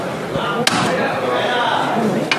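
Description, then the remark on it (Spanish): Two sharp, ringing knocks, spaced well apart, from a Holy Week float knocker shaped as two angels with a bullfighter's cape, as the foreman's team prepares to take the float out through the door. A steady murmur of crowd noise and indistinct voices continues underneath. “verdad que están organizando y midiendo un poco pues cuánto, cuánto queda para, salir, para salir por la puerta y, y escuchamos el llamador.”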